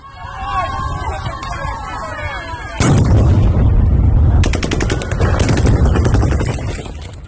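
Crowd noise and a wavering siren give way to a loud burst of rapid gunshots as Russian troops open fire on Ukrainian protesters, sharp repeated cracks over shouting and chaotic commotion.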